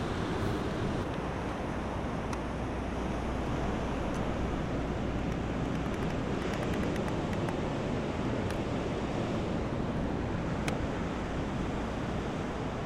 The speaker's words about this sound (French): On a un bruit blanc, euh, bruit rose qui est permanent euh, dans le fond. Mais euh, ça rend les performances au bord de la mer très intéressantes parce qu'on a un nouvel instrument qui est avec nous, c'est l'océan. Et ça, ça c'est vraiment chouette.